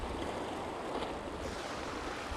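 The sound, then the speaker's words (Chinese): Steady rushing surf of sea waves washing onto a beach at the seaside of Guanshan city in Japan, a broad continuous hiss with gentle swells and a low rumble, no voices present. “可能这个海没有名字，但是我特别喜欢这里的海浪声。”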